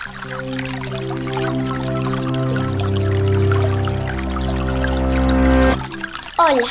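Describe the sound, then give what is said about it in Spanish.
Water runs steadily from an open tap into a container, fairly loud, its tone rising gradually as it fills, then cuts off abruptly near the end. “Evitando de, dejar la, llave abierta, no excederse en el consumo innecesario en el agua.”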